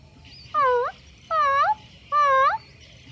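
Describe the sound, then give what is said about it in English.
A person imitates a puppy's soft whimper: three short, high, whiny cries that bend in pitch, evenly spaced about a second apart, fairly loud against a quiet background. “Why don't you also try whimpering softly, like a little puppy does?”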